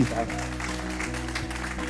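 An audience claps steadily for a couple of seconds, a dense patter of many hands at moderate loudness, over a low constant hum.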